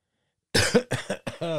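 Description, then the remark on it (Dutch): A loud bout of coughing after a moment of silence: three quick rough coughs in a row, the last one trailing into a voiced, throaty rasp. “Ik moest even kuchen.”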